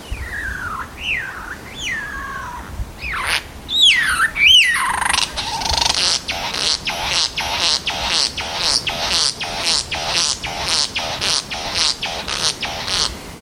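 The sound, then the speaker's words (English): Calls of a satin bowerbird (Ptilonorhynchus violaceus): swooping, wavering whistles at first, then a sharp burst followed by a long run of rapid, harsh, buzzy rattling notes repeated steadily. Clear, with no voices. “That is a satin bowerbird.”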